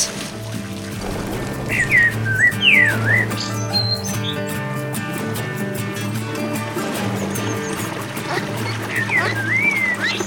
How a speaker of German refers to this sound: Aber nun muss ich weiter, sagt es freundlich lächelnd, bevor es begleitet vom zwitschernden Singsang aufs offene Wasser entschwindet.